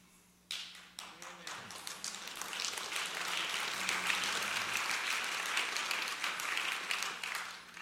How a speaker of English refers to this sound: You know what? They clapped the same way.